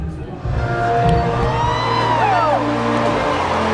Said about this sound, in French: J'entends la foule chantonner en chœur. pourtant, grande surprise, personne ne connaît vraiment bien les paroles.